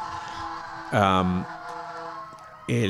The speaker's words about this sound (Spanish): Mira, por ahí pasa una ambulancia o coche de bomberos que que no le pasa nada a nadie.